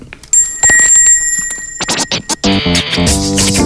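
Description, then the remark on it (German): A small bell rings with bright, sustained high tones over a run of rustling, scraping bursts, then a louder, buzzy harmonic sound takes over for the last second. “Warte einmal Leute, ich noch meinen Glockel.”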